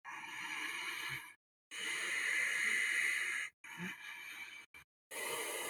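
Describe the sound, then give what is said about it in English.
Several long, airy inhalations drawn in through the nose from the lower belly, expanding the diaphragm, each a steady hissing rush separated by brief silences, with no talking. “So if I'm almost breathing in from my lower belly, my diaphragm, if I expand my diaphragm as I breathe, it becomes a little bit more like.”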